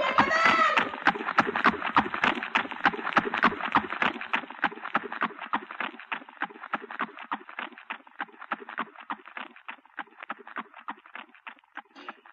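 Rapid, rhythmic hoofbeats of a galloping horse, steady and driving for the whole stretch, loud at first then gradually fading as if moving away.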